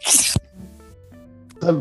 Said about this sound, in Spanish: Disculpen, me salió un estornudo de la nada.